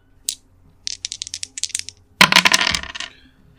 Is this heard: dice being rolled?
yes